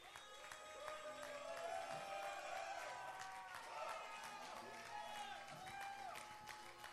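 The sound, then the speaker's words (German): A crowd of men in a church audience cheers and shouts enthusiastically in praise of God over steady clapping, their overlapping voices rising and falling in a loud, sustained burst for several seconds. “Lass mal die Männer hören, die, dass sie jubeln, dass sie so einen Gott haben.”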